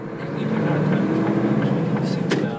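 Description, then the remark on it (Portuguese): A heavy goods truck engine in Wales, of a truck driving for an animal-feed production and distribution company, recorded on a smartphone, rumbles steadily, a deep continuous drone with a rough, slightly pulsing texture that holds at the same loudness throughout. “Como se percebe pelo som que o André captou com o smartphone, trata-se de um caminhão.”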